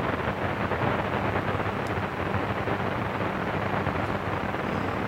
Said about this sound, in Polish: To jest zakłócenie. Aha. Taka sobie nośna stoi. Y, może coś to generuje. Na CB Radio bardzo dobrze to słychać na czwartym kanale.